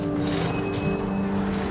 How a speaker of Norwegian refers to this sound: Men plutselig styrer en lastebil rett mot skjoldborgen.